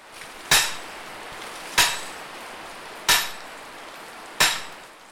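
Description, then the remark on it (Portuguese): Four sharp, ringing hammer blows drive iron stakes into the ground at an even, unhurried pace, each with a short decay, over a steady hiss of falling rain, as a market stall's ropes and awnings are being set up. No one speaks. “Ao barulho da chuva junta-se o barulho dos martelos, que cravam os ferros no chão, para depois se amarrarem as cordas e se erguerem os toldos.”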